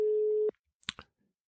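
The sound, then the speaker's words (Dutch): A steady telephone ringing tone hums for about half a second while placing a call, cuts off abruptly, then a couple of sharp line clicks follow before silence. No one speaks. “Vandaag ga ik iemand opbellen en verloopt het dus via de telefoon.”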